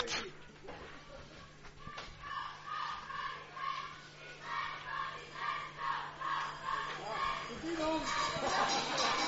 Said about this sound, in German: Die Cheerleaders versuchen wirklich alles, um hier das Publikum ein bisschen hochzukriegen, aber so richtig begeistert sind die gerade nicht von ihrer Defense.